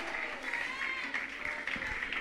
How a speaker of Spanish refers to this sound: Y si lo aplaude con el alma, mucho mejor.